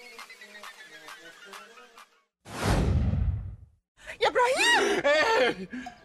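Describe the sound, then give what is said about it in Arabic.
A man gasps sharply awake from sleep to a surprise, a loud, rushing breath, then lets out startled, wavering vocal noises, after a few seconds of steady rhythmic ticking; a scene from a TV series. “يا يا رب الصوت ده مش واحدة بتطبخ ملوخية لأ ده صوت … وهو بيصحى كل يوم من النوم على مفاجأة وهو أكتر واحد ما بيحبش المفاجآت”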